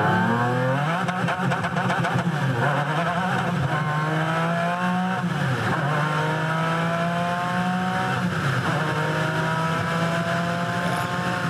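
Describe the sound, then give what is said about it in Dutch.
A McLaren F1 car's high-revving engine accelerates hard, its pitch sweeping upward through several gear changes with brief dips between them, loud and continuous throughout. “is die auto ooit geleverd in Nederland eigenlijk? Die F1, die F1?”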